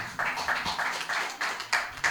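Audience applause welcoming a singer-songwriter: a dense, steady wash of many hands clapping, moderately loud, with slight rhythmic surges throughout and no voices over it.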